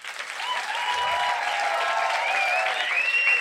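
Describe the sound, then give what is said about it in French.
A crowd applauds steadily for a few seconds, recorded for a show as applause for having contested, the clapping dense and continuous at a fairly loud, even level, with faint cheers or whistles rising over it. “Les applaudissements ouais, bah, d'abord Les applaudissements pour avoir contesté.”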